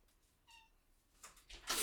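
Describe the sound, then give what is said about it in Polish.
A cat gives one short, soft meow as it is being let out, followed by a few brief scuffling or rustling noises that grow louder toward the end; no one speaks. “kot chyba sobie przypomniał Wojnę Światów i chce uciec od nas”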